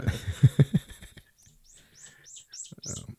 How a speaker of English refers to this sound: you guys have finches or something out there